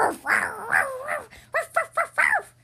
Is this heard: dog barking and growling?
yes